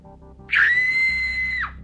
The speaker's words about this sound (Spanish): Atemorizada, un relámpago iluminó la estancia y vio a un niño de su misma estatura frente a ella. Arrancó a correr por el pasillo, gritando